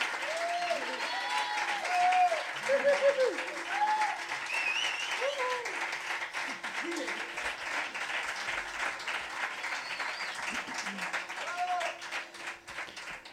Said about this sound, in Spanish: gracias. Un aplauso a mis coristas.